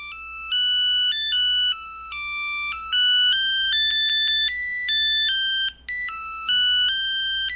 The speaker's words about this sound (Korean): 전화 온 거 같은데 안 받아? 아, 됐어. 나중에 내가 걸면 돼요.